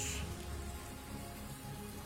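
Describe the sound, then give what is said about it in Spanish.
Heavy rain pours down in a steady, dense, loud hiss that fills the whole clip, with no voices and no breaks in the downpour, in Aguascalientes before dawn, around 4 a.m., causing flooding. “La lluvia nos ha despertado a todos.”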